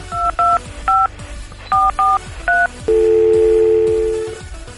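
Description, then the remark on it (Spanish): A rapid series of telephone keypad dialing tones as a second caller is called, about eight short dual-pitched beeps in quick clusters, followed by a steady, sustained ringing tone on the line. Clear, with no talking. “Inmediatamente nos vamos con nuestra segunda llamada para escuchar quién nos está hablando y a quién sobre todo desea hacer llegar sus saludos.”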